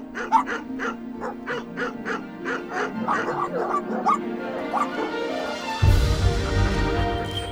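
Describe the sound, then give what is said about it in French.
Several dogs bark and yip in quick, overlapping bursts, with some whining mixed in, loud, in the kennel of Arnaud, head of the FNSEA; a low rumbling noise swells near the end. “Mais avant de pénétrer dans sa belle demeure, Arnaud fait un détour par le chenil car il passe toujours voir ses beaux chiens qu'il aime tant.”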